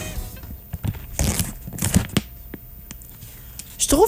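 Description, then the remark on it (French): Resealable aluminium-foil snack packaging is torn open before the snack is poured into bowls, a string of sharp crinkling rips and rustles scattered over a few seconds, with no one talking. “avant de verser, on doit déballer l'emballage.”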